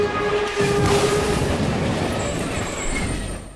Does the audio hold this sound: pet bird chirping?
no